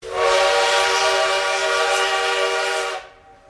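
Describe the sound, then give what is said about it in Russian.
A train sounds a loud, steady horn blast lasting about three seconds, prominent, then cuts off into quiet with no voices present. “мне понравилась э, как бы сама вот эта вот атмосфера, поезд”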